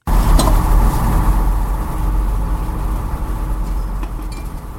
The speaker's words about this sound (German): Solch ein Lärm bedeutet vor allem eins. Vorsicht Baustelle. Bagger, Bohrer und Zäune beherrschen zurzeit nicht nur das Bild der Karlsruher Innenstadt. Auch auf dem Campus Süd wird fleißig gebaut und saniert.